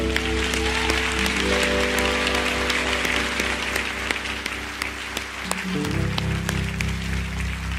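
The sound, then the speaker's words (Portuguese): An audience at the Igreja Batista Atitude in Barra da Tijuca claps steadily and loudly for several seconds, applauding the Lord after a prayer: a dense patter of many hands over a sustained organ or keyboard chord that shifts pitch near the end. “Se você crê nessa palavra, aplauda ao Senhor.”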